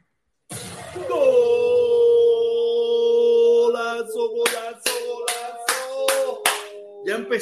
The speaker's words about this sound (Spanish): Oye, aplauso.